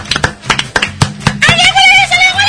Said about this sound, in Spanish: ¡Aplaude! ¡Muy bien!